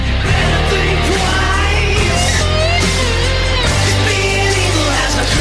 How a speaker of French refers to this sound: Et voilà, le, petit son que vous entendez, c'est justement la bande originale. C'est plutôt sympathique.